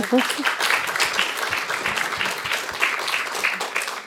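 A crowd applauds steadily, dense overlapping claps forming a continuous bright patter at moderate loudness, sustained through the whole stretch with a faint murmur of voices beneath.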